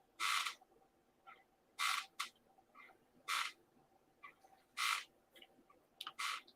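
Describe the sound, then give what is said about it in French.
An armchair creaks and squeaks over and over, with roughly six sharp, scratchy bursts at an uneven pace and quieter rustles in between. The sound is fairly quiet, with no talking. “Ah, mon fauteuil fait du bruit.”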